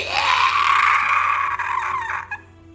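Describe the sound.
A single long, shrill scream of terror, voiced by a person imitating it, held steady at high pitch for about two seconds before breaking off abruptly. Loud, with no talking over it.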